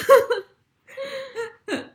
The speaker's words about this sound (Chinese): 我现在边笑边边咳嗽，是新冠的后遗症。